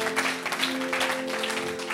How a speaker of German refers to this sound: So, dafür ist ein Applaus da.